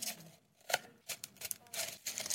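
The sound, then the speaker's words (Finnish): A small envelope being torn open: a string of crisp, papery rips and crinkles in short uneven bursts, fairly quiet, with no one talking. “Siinä on tuonne pieni kirjekuori.”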